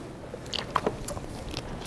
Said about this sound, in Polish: Nie wysyłam nigdy ofert, muszę wziąć łyku wody i lecimy dalej.